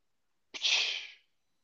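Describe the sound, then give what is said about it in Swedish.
A voice imitates a beer can being opened: one sharp, breathy "pssht" hiss that bursts in suddenly, holds for about half a second, then fades. It is alone, with no talking. “Eh, jag vaknar 02.59 av att jag hör ett”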